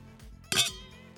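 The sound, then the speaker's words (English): Wine glasses of 2019 Napa Valley Cabernet Sauvignon clink together once in a toast after finishing the bottle, a bright, ringing chime that fades quickly, over a quiet background with a faint low hum and no talking. “We finished the bottle. Cheers.”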